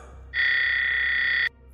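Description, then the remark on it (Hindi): A nurse call button beside a hospital bed, pressed a second time to call a nurse, sounds a single sustained electronic tone, steady and high-pitched, lasting just over a second before cutting off abruptly over a low background hum. “nurse को बुलाने के लिए उसने वो बटन दबाया और थोड़ी देर बाद तक भी कोई नर्स नहीं आई उसने वो बटन फिर दबाया”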